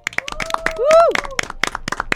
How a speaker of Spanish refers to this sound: ya está con nosotros nuestra querida amiga Ro Priegue del Gato y la Caja, a quien vamos a, por supuesto, aplaudir.